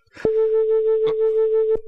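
A steady, pure electronic tone at a mid pitch, played to one ear and higher than a preceding tone, holds evenly for about a second and a half, with brief clicks at its start, midway through, and at its end.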